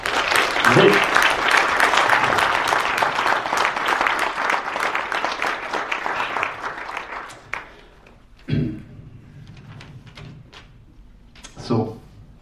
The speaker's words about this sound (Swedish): Så, stor applåd till dig.